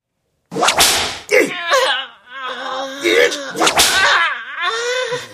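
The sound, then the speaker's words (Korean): Three sharp whip lashes crack out a second or two apart, each followed by a pained voice wailing and moaning between the strikes: a troupe leader in a tent whipping a boy the way one lashes a horse. “단장은 소리를 지르면서 노인의 등을 밀어 천막 밖으로 내쫓고는 다시 들어오자마자 채찍으로 말 갈기듯 소년을 후려 갈겼습니다.”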